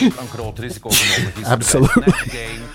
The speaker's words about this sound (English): oh, I think I'm gonna sneeze. Hold on.